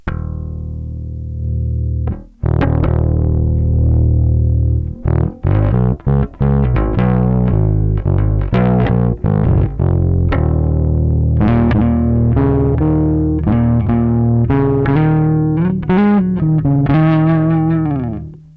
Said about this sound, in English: kind of aggressive without it. I think it'll get into distortion or overdrive or something.